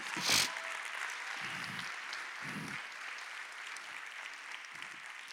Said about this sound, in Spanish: Alguien que aplauda mejor que eso en esta mañana.